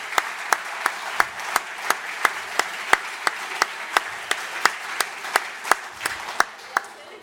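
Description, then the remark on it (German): A crowd applauds steadily, with a dense wash of clapping punctuated by sharp, evenly spaced claps in a regular rhythm that carries on for about seven seconds, given as a thank-you to the sponsors. “Einen ganz großen Dankeschön-Applaus schon mal für Sie und für alle Sponsoren.”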